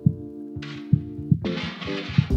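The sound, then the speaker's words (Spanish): A low, muffled heartbeat thumps in a steady rhythm beneath sustained droning synth tones, with bursts of airy hiss washing in partway through; no one speaks. “Los relajan, es más, los niños prematuros que no pueden dormir se relajan por los latidos de su madre o los sonidos que los imitan.”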